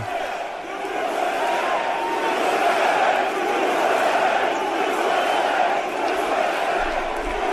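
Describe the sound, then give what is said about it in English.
A large crowd at a Trump rally in New Hampshire roars and chants "USA, USA" together in an auditorium, a loud, steady wall of many voices that holds for several seconds without letting up. “And yeah, Trump in New Hampshire yesterday, the crowd chanting USA, USA.”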